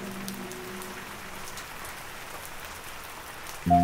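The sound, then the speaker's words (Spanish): Steady rain falls continuously, a soft even hiss of drops on a surface, with a faint low tonal hum early on and a brief louder harmonic tone entering at the very end. “Entramos las siete naciones y los tres escuadrones y esperamos en la plaza, bajo la lluvia.”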